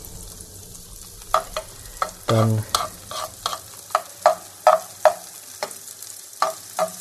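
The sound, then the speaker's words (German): A spatula scrapes and stirs food in a sizzling frying pan as a little salt is added, with repeated sharp clicks and scrapes over a steady frying hiss; one short spoken word is heard briefly. “Klein wenig ruhig Salz dran, nicht viel, weil er das nachher würzt, aber wenn er das jetzt schon mal in der Pfanne habt, ne?”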